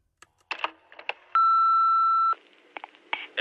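An answering machine gives a single steady electronic beep before playing back a message. The beep is about one second long and sounds loud and clear in the middle, bracketed by faint clicks and handling noises as the machine is operated.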